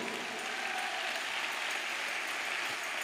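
A crowd claps steadily for about three seconds, a dense, even wash of many hands with no voices on top, moderately loud.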